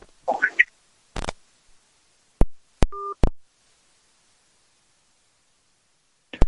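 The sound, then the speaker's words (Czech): A phone line cutting out: a brief clipped voice fragment, then several sharp clicks and a short two-tone electronic beep, followed by dead silence and one last click. “Tak teď to vypadlo.”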